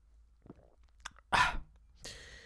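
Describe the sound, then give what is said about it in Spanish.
Drinking water: a few small wet clicks, then a loud, throaty gulp of water, followed by a breathy exhale. No talking. “Voy a volver a beber agua, ¿vale?”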